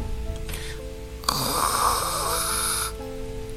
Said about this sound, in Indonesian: Ada suara erangan dari dapur. Pelan-pelan, ku hampiri sumber suara itu.